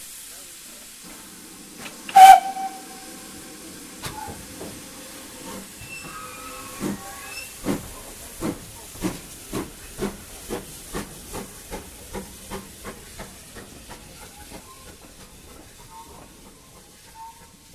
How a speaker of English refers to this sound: Locomotive's now taking on water before reattaching to the train so that it can take us down to Lydney.